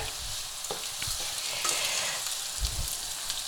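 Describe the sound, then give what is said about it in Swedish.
Four decilitres of arborio rice and onion fry in a hot pan with a steady sizzle, broken by a few scraping stirs and low knocks of a spoon against the pan. “Jag har fyra deciliter arborio-ris som liksom får steka med löken här i nu.”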